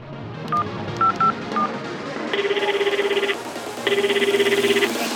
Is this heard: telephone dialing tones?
yes